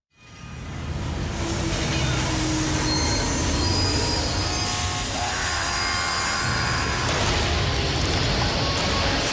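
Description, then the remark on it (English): A train-wreck sound effect: train wheels screech loudly against the rails, a sustained high metallic squeal riding over a heavy rolling rumble that fades in quickly and holds steady throughout, with no voices. “oh, man, that's a fiery train wreck right there.”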